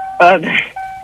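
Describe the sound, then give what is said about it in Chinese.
A steady, high electronic tone hums on through a car sound, briefly covered when a man speaks a couple of short words in the middle, then continuing unchanged. “所以现在，嗯这这是车子的声音吗？”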